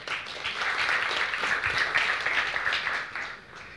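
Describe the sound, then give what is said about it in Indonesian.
A church audience claps for God during a sermon in sustained, dense applause that holds steady for several seconds before tapering off slightly at the end, with no voices speaking over it. “Tepuk tangan untuk Tuhan.”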